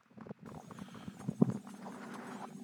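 A series of quick, irregular knocks on a door, moderately loud, with a faint background hiss and no talking.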